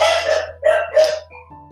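A dog barks three times in quick succession, loud, each bark short and harsh, followed by a brief faint tonal noise as the barking stops.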